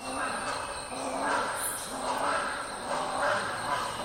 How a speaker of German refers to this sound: wenn wir über den Gesang äh, des Vogels sprechen, dann müssen wir noch einmal ganz kurz hören